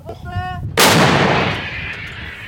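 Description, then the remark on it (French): A single deafening artillery shell firing, its sharp blast rolling into a long, fading rumble, fired by the Ukrainian army's 59th artillery brigade in the Donbass. A brief tonal call sounds just before the shot. “Le balai angoissant des hommes et des obus fumants reprend son cours.”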